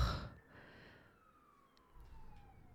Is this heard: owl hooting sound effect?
no